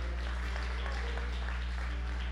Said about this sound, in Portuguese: Aplaude ao Senhor aí. Dá um grito de júbilo ao Senhor.